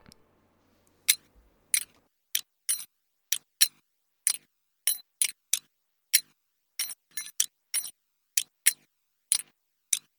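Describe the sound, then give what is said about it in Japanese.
Keys on a keychain jingle while someone walks in Tokyo, sharp, crisp metallic clicks roughly evenly spaced like footsteps, fairly loud, with a faint low hum at the very start, used as a song intro. “で、イントロはね、イントロカチッカチッカチッってなるんですけど、これ実はね、僕の鍵の音です。”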